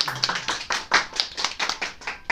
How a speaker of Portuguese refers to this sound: Aquela produção, aquele produtor ele é novo, tem que ensinar Ei, ele que tem que bater palma.